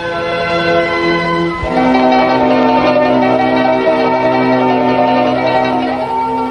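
A radio time-signal bell chime marking 9 o'clock rings with rich, sustained harmonic tones, then a second struck chime enters partway through and lingers steadily at a fairly loud level, with no voices.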